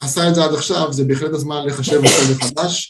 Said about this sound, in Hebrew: לבריאות